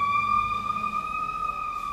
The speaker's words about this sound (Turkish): Evet. Evet. Ambulans geçti.